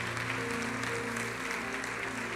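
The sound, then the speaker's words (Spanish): Loud, sustained hand clapping from a crowd in worship, a dense continuous wash of claps with steady humming tones underneath and no words spoken. “Dale fuerte, fuerte, fuerte, fuerte las palmas, Señor.”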